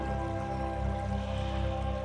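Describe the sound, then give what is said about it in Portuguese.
Continuous gentle, calm flow of river water in nature, steady and unbroken, blended with a soft sustained tonal drone; no voices, moderate loudness throughout. “Sinta a paz, escute o barulho da natureza, da água, da água passando.”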